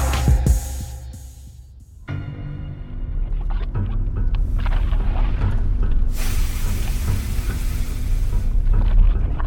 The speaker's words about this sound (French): 1815. Montambora, Indonésie du Sud. La plus grande éruption volcanique de l'histoire projette un tourbillon de nuages de cendres et de fumée dans l'atmosphère bloquant ici les rayons du soleil et modifiant radicalement les conditions météorologiques